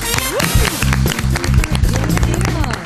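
A burst of audience applause, dense and steady, clapping spread across the whole clip with a pulsing low musical or vocal layer underneath.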